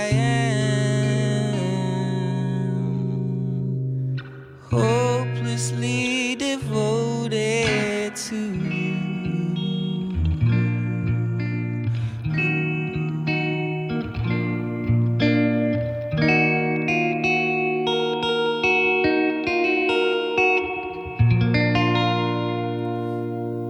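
A pop song cover plays loud and steady, with a lead vocal melody over sustained harmonic instruments and processed, effects-heavy textures, a brief dip near the start, then continuing full throughout.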